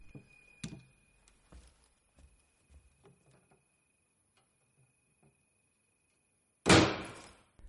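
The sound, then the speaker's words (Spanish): Soft scattered clicks and taps as a man handles a mask from a glass display case lead up to a single loud bang of the case's glass lid shutting near the end, with a brief rattling decay. “Pensativo, coge una de ellas, la mantiene unos instantes en la mano, pero vuelve a dejarla y cierra otra vez la tapa de cristal.”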